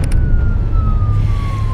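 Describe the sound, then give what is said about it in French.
A police siren holds a steady, slowly falling wail over the heavy low rumble of a speeding police car's engine and road noise, heard from inside the police car as it races to an unknown address. “Chers auditeurs, nous nous trouvons actuellement dans la voiture de police qui fonce vers une adresse inconnue.”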